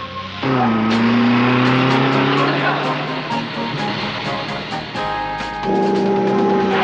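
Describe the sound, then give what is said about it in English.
A car engine revs hard and roars continuously during a car chase, pitch rising and falling as it accelerates, loud throughout, as the driver tries to lose pursuers. “I didn't know zombies could drive cars. Well, these can. Hang on, gang. I'm gonna try and lose them.”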